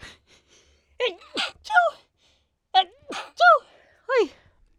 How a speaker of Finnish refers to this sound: nyt alkaa aivastuttaa apua.